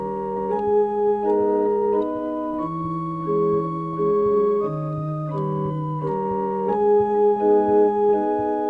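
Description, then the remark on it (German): A barrel organ plays a bright, steady melody with sustained reedy chords, moving in even phrases, with no voices over it. “Startschuss, meine Damen und Herren, und die Melodie auf der Drehorgel, die Sie soeben hörten, waren der Schlüssel zu einem seltsamen Kriminalfall”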